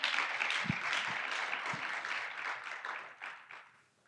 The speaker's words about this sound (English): Yeah, if you're going to clap VC20, do it better than that.